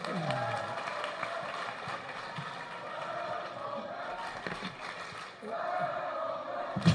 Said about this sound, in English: a big hand for